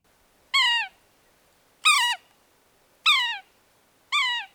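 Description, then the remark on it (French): A bird calls four times alone, each a short, harmonically rich, downward-slurred note about a second apart, clear with silence between calls. “Et comme à l'habitude, voici la voix de l'oiseau à l'honneur aujourd'hui.”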